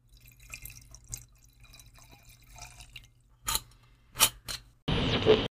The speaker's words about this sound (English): So enjoy this uh, eight second ASMR of me pouring wine.